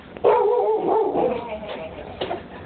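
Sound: two dogs barking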